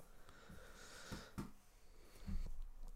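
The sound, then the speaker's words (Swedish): A few faint, irregular computer mouse clicks, sharp little taps spaced out over a few seconds against a soft, breathy background hiss, with no talking. “Nej, jag knackar med musen bara.”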